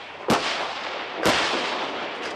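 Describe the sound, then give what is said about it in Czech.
A Czech Army Dana 152 mm self-propelled gun-howitzer, with a range of over 20 km and a rate of fire of 4 rounds per minute, fires twice, about a second apart, each a sharp, loud blast that trails off into a steady outdoor rumble and hiss. “Samohybná kanonová houfnice Dana hráže 152 mm a v současnosti pořád hlavní zbraně dělostřelectva.”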